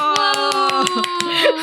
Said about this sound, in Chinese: 好哦，那我们恭喜玄彬跟孙艺珍拍手。